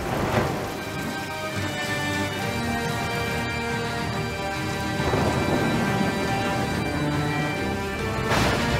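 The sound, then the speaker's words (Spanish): Steady rain pours down with a dense hiss, while low rolls of thunder rumble through it, swelling loudly near the middle and again at the end. No voices. “Empezó a llover. Y llovió. Y llovió.”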